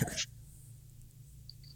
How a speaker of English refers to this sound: just sneezed and scared the shit out of me. I thought there was another person there. I was like, holy shit, someone snuck up on her.